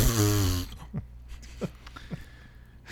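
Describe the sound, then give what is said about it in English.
A voice blows a loud, buzzy fart-like raspberry for about half a second, then it cuts off into quiet with a few faint, soft vocal blips. “He made like a fart noise.”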